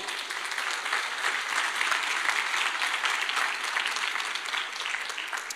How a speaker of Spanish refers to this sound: Y amén. La iglesia le da palmas al Señor.